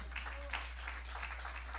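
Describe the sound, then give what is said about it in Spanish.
An audience claps together in soft, steady applause as an offering of applause to the Lord, a dense patter of many hands that rises and falls in gentle waves over a low background hum. “Le puedo dar una ofrenda de palmas al Señor, hermano.”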